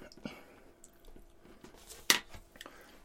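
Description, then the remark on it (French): Crunchy chewing of a crisp pastry tube, with soft irregular crackles and one sharp, loud crunch near the end, and no talking. “Ben, la tube, évidemment, est croustillante.”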